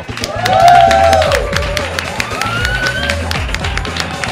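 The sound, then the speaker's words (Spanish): An audience applauds steadily for a performer introduced on a comedy show's weekly news quiz segment, dense clapping filling the whole stretch at a fairly loud level, with a few rising whistles and cheers cutting through the crowd noise. “que siga ese aplauso para mi compañero”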